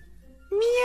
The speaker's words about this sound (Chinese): 忽然，不知道从哪里传来了小猫的叫声，卡罗尔还以为是自己听错了。他看到一只黑白花斑的小猫从厨房里钻了出来